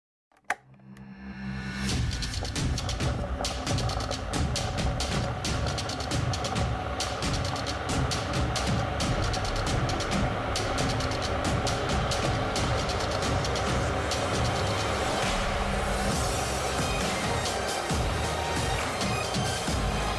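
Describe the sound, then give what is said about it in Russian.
A kettle heating toward a boil: a dense, rumbling hiss swells within the first couple of seconds, then holds as a steady, fairly loud bubbling roar with no voices. “Чтобы оправдать то, что у нас в названии идти пишется как чай, я в начало вставлю звук закипающего чайника и будет зашибись.”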